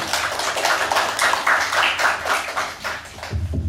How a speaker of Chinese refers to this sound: 我们鼓掌欢迎，谢谢。